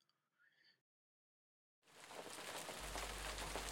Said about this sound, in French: Il pleut aujourd'hui. Je ne vais pas sortir.